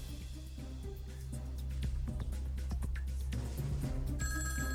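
A telephone rings with a bright, electronic trill over a steady low hum and clattery background noise, the ring growing clearer toward the end, as a listener calls in to a radio phone-in. No one speaks.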